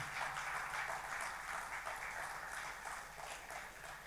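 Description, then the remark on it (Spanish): A crowd claps steadily for about four seconds as thanks to God, a dense, continuous patter of many hands at fairly even loudness, with no voices standing out. “Así que vamos a dar un aplauso al Señor, dándole gracias por eso.”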